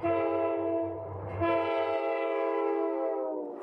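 A loud, sustained train horn blares for several seconds over a deep rumble of a passing train, with the low rumble fading as the horn holds and then tails off.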